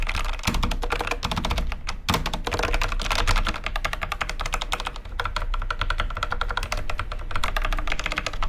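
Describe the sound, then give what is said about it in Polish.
Steady, rapid typing on a low-profile mechanical keyboard whose plate is not mounted as firmly as it could be, a dense stream of crisp key clicks with a slightly metallic ring, continuing for several seconds without any talking. “Brzmienie klawiatury mm, brzmi mniej więcej to tak.”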